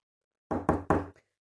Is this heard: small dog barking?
no